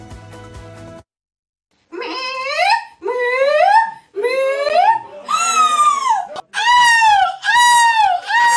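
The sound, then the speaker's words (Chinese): People imitate seagulls at an annual seagull imitation contest in the Belgian town of Adinkerke, with a quick run of loud, shrill, wailing squawks, each call swooping up then down in pitch. A short burst of music plays before a brief silence. “比赛内容是比说谁的叫声最像海鸥啊，结果吸引了欧洲各地的人前来参赛，现场尖叫声连连，十分的逗趣。”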